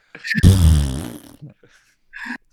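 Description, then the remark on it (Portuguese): Someone blows a loud, buzzy mouth-fart noise imitating a fart, stretching for almost a second and trailing off, followed by a brief breathy sound. “Eu dormindo de boa no sofá, alguém chegou, botou o bundão pra fora e.”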